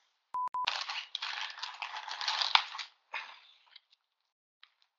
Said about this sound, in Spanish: Sigue usted, sigue usted, que enchufa esto. Sí, pero es que yo escucho de fondo la bolsa de plástico, tú enchufando, que te alejas del micrófono, todas esas cosas luego yo editando, pues digo, bueno, me las ahorro y luego las recorto, ¿no?